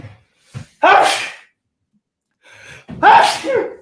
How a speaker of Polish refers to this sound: Przepraszam bardzo e, za kichanie na, na wizji. Mm, natomiast starałem się kichać w bok, nie w waszym kierunku, no bo dbam o wasze zdrowie.